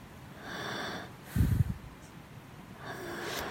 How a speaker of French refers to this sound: C'est donc mon psy en train de dormir. Et depuis, à mon avis, euh, cinq bonnes minutes. Donc il a rallumé son téléphone, il a enregistré les ronflements du médecin.